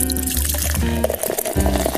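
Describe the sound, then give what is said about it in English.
A drink is poured into a glass, a steady liquid stream whose gurgling tone rises as the glass fills, with a brief break midway before the pour resumes. “So kick your feet up, pour your favorite drink”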